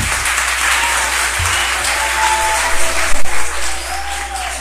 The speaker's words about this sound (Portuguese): E eu queria uma salva de palmas para vocês por tanta alegria que traz com essa cultura.